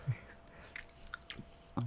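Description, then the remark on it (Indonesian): Quiet chewing as a speaker eats food: soft wet mouth clicks and small crunches come in an irregular rhythm, with brief low voice sounds at the very start and end. “Jadi salah satu pembicara kita lagi ASMR guys. Jadi sorry makan, ya.”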